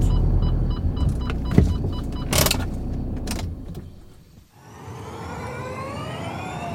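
A car idles and parks behind the new buildings housing the company GCK at the Charade circuit, with several sharp clunks and a power window's motor whine. The engine cuts out, then a steady hum with rising electric tones follows. No one speaks.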